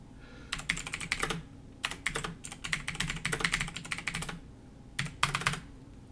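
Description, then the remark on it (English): Rapid, clacky keystrokes on a computer keyboard come in dense bursts with brief pauses between them, fairly loud, with no voices over the typing. “I think let's let's check activate Super Clacky Keyboard”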